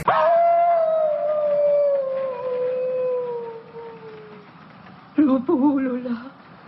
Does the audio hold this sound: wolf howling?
yes